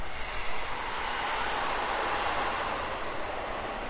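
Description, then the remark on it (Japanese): A train passing, producing a steady, broad rushing roar that holds at an even, fairly loud level throughout, with no voices, in Hokkaido, Japan, on a clear, starry evening. “電車の音すいません。”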